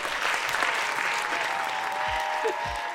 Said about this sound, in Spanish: Em, un aplauso para Mariano, el mejor padrino de bodas.